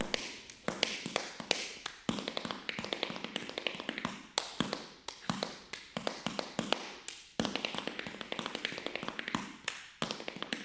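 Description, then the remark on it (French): Rapid, crisp tap dance steps clatter continuously in quick rhythmic bursts, with sharper accented strikes every second or two, fairly loud with no voices. “Donc ils avaient deux moyens, ils avaient le chant et ils avaient le son, le rythme avec les claquettes et le body rhythm, le, le rythme des mains, du corps qui faisait travailler également.”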